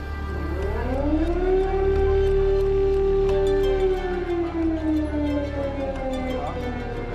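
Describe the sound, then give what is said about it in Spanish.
Emergency sirens wail across Kyiv, the capital of Ukraine, the long tone climbing, holding steady, then slowly sliding down, echoing over a low background rumble. “suenan las sirenas de emergencia en Kiev, la capital de Ucrania.”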